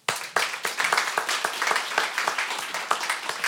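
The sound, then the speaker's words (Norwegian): A group of people clapping steadily for a few seconds, a dense, crackling patter of many hands with sharp individual claps standing out, sustained at an even loudness throughout. “Vi klapper litt for deg.”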